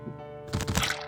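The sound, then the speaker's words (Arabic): A muffled, crunching burst of impact erupts after a low rumbling hum, a dense cracking splatter lasting about half a second before cutting off, with no voices; it is the bodies of a man and a woman bursting on impact after jumping into a pit. “صوت الانفجار المكتوم وأجسامهم بتنفجر من الاصطدام وبعدين صمت”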